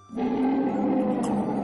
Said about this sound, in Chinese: 到了这天稍微黑的时候啊，这严大个儿就听见这鬼哭狼嚎、阴风瑟瑟，